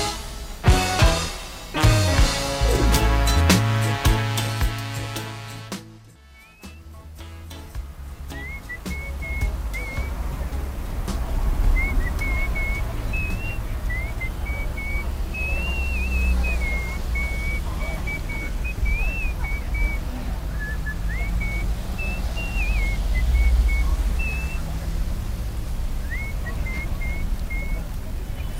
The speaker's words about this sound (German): Was für ein lustiges Outro. Du hörst einfach nur Verkehr. Und einer pfeift und ein bisschen Regen, aber das ist eigentlich noch schön.